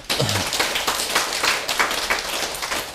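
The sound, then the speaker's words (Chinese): An audience claps steadily, a dense crackle of many overlapping hand claps at fairly even loudness throughout, with no one talking over it. “鼓掌的哈有福报，因为你有落差，你没有当下反应，哇那。”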